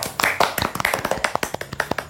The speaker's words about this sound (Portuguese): Palmas, por ter... palmas, palmas.